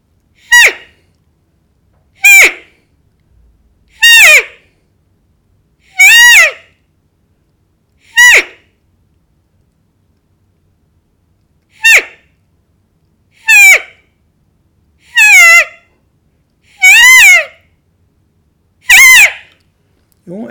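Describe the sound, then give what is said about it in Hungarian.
A roe deer doe gives her complaint call after a buck strikes her with his antlers: about ten short, high, squealing bleats, each separated by a pause of a second or two. The calls are loud, with no talking. “Ilyenkor a suta a panaszhangját hallatja, hogy ami valahogy így szól.”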